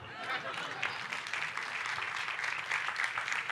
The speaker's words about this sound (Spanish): Un aplauso.